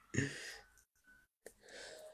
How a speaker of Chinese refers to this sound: 哎呦，打个喷嚏啊！